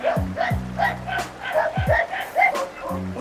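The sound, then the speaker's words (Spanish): Several dogs bark in quick, overlapping bursts, some yipping higher while others bark lower, with a low croaking or rumbling texture running beneath them throughout. “Así pues, muertos ya, nos encontramos en el Chico Nahuapan, también llamado Itzcuintla o lugar de los perros”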